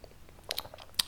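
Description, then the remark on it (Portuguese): Someone with a cold takes a quick sip of water, with a few soft wet mouth clicks and a gulp, then a short louder low thud at the end; no talking. “Olha, foi preciso dizer que estava a morrer para ter que dar um golinho de água por estar constipado.”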